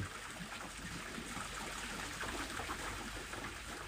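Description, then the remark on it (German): Water flows steadily and continuously, like a stream or river, with a soft, even rush and light trickling detail throughout. No voices are heard. “Und vielleicht magst du dir vorstellen, dass dieses Wasser, dieser Fluss, so ist wie deine Gedanken, deine Erfahrungen und Erlebnisse.”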